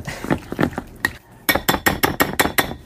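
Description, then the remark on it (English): A spoon stirs green beans and soup in a microwave-safe bowl, clinking against the sides in a run of sharp, bright taps that pause briefly, then come quicker and louder. No one speaks. “I don't know if that's necessarily mixed well, but that is as well as I'm going to do it.”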